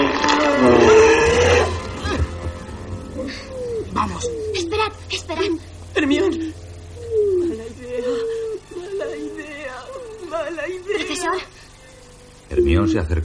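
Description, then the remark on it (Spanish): A loud, harsh roar bursts out at the start, followed by a string of strained, snarling growls and whining vocal cries that rise and fall, like a beast in torment, as Lupin swells in size, bursts his clothes, grows fur all over his body and a snout, and turns into a wolf. “Le sale pelo por todo el cuerpo, le crece un hocico en la cara y se convierte en lobo.”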